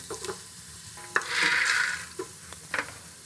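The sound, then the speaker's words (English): Garlic crackling and sizzling in hot coconut oil, a steady bright hiss that swells in the middle, broken by a few sharp pops and clicks, with no voices. “How lovely this garlic looks! Just crackling away in the coconut oil.”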